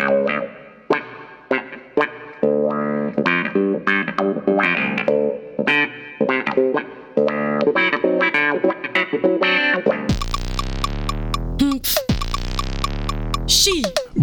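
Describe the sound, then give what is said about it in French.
A clavinet plays bright, percussive staccato notes in a choppy rhythm, then shifts to a heavier, distorted, effect-laden passage with a sweeping, wobbling tone and a deep low rumble. “De nos jours, le clavinette est un peu tombé en désuétude”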